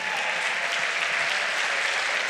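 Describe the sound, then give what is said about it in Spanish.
A church audience applauds loudly and steadily for the Lord, a dense wash of many hands clapping at once that holds at full strength throughout, with no voices standing out. “Un fuerte aplauso para el Señor.”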